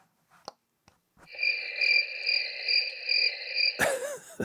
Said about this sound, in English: That's crickets.